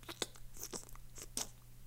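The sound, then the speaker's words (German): A voice imitates the wet, sticky smacking noises of a finger stuck into a freshly opened Nutella jar: a quick series of moist clicks and smacks at an uneven pace, fairly quiet, with no words spoken. “Geräusche, weißt du, diese, diese Schmatzgeräusche.”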